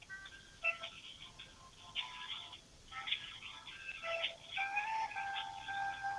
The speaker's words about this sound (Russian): Ну что, включила какую-то пищалку и...